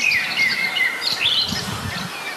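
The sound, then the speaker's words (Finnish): A blackbird sings right by the microphone in a small wood, with clear whistled phrases and chirps, joined by a robin. A steady outdoor background runs beneath, with a low rumble of geese in the background. “Kyllä, ja Mustarastas on ihan mikrofonin lähellä.”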